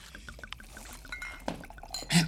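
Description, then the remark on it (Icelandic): Glasses clink together in a toast, one bright ringing chime near the end, after soft liquid-like rustling and small clatter. “Skál fyrir ykkur.”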